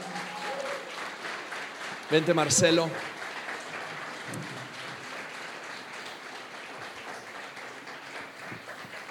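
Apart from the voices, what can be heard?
loud applause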